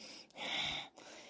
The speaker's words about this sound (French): qui est Bastrika, le soufflet de forge, qui est aussi un mouvement très puissant qui va allumer le feu dans votre euh, estomac. Bastrika, c'est ces inspirations forcées ou, et ces expirations de temps égal